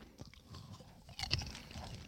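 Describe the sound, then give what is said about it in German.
Someone chewing crackling strawberry popcorn made with popping powder containing carbon dioxide, with a steady run of soft crunches and crackles, a slightly louder crunchy burst midway, and no talking. “Ja, man merkt es schon, so ganz leicht.”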